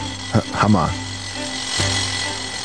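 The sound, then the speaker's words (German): A jackhammer drones steadily in the background throughout, a continuous mechanical rattle with a low hum, while a brief vocal sound rises and falls near the start. “Im Hintergrund hört ihr einen Presslufthanger.”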